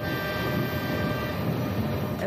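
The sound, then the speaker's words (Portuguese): A steady, loud rumble of a train rolling past at Aregos railway station in Baião, a continuous rolling roar with faint metallic ringing tones on top and no voices. “A estação de comboios foi determinante para a escolha do realizador António Sequeira.”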